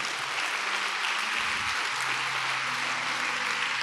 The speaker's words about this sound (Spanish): Ahora sí, dale un aplauso a Él con todo el corazón.